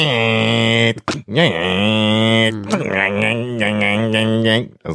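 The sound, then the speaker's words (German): A voice imitates a dot matrix printer, starting with a long, buzzing, nasal drone, then breaking into a quick run of rhythmic, stuttering bursts like a print head moving across the page. “Mit einem äh, neuen Nadeldrucker.”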